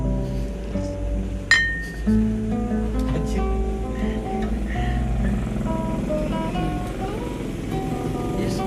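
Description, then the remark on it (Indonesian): Glasses clink together once in a toast, a bright short ring that fades quickly, heard against a steady low rumble of background music. “cheers”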